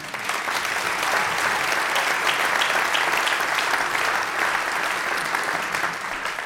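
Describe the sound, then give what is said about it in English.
A steady burst of audience applause for a featured musician after a live performance, dense crowded clapping that holds at a loud, even level for several seconds with no voices rising above it. “Give him a big round of applause again.”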